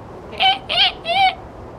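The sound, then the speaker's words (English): Three harsh, high-pitched screeches in a row, each short and wavering, evenly spaced and fairly loud against a quiet background, made by a person imitating a killer whale's screech. “Or screech, like this.”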